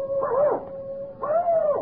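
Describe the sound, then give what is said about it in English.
The hound in a Sherlock Holmes story howls twice, each cry a long wavering wail that rises and falls in pitch, with a brief pause between them and a steady tone droning underneath. “Good Lord, Holmes! The hound!”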